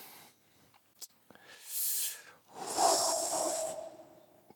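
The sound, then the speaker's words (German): A deep breath: an airy, hissing inhale followed by a longer, fuller exhale that trails off gradually. There is no talking. “Wir müssen alle tief durchatmen.”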